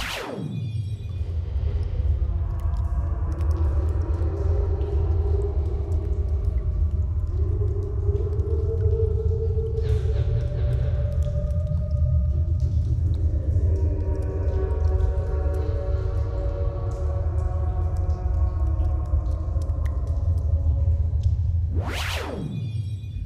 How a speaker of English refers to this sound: it's actually kids at a playground um, and their voices have just been slowed down by I think it was like by 100%, and then there's some very heavy echoing and reverb added.